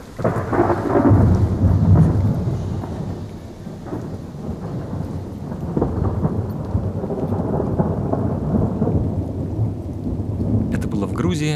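Deep, rolling thunder rumbles continuously over steady rain in the mountains of Georgia in autumn, swelling loudest early on before settling into a lower, sustained roar with rain pattering throughout.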